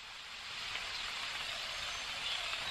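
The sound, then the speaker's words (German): Steady, dense patter of rain falling on the leaves of trees in a forest, forest sounds from the Forest app, a continuous soft hiss without pauses or distinct drops, moderately quiet and even throughout, with no voices. “Also das ist die App Forest, die so Waldgeräusche imitiert, vielleicht auch so ein bisschen so wie Regen irgendwie im Wald, ja, der so auf Blätter an den Bäumen prasselt, so hört sich das ein bisschen an.”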